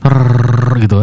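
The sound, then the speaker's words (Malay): A voice mimics a metal rod being dragged across a roof: a loud, rolling growl held for about a second, breaking briefly before a short final burst. “Bunyi macam orang dragging a metal rod on the roof.”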